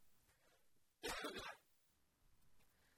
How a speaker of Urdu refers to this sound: sorry معذرت چاہتا ہوں مجھے آج کھانسی لگی ہوئی گلا خراب ہے